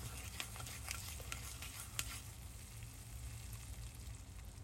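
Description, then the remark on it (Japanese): Sticky natto being stirred, a continuous wet fizzing and crackling with small clicking taps of the utensil scattered through, steady for several seconds with no talking. “これわかりますかこの納豆の”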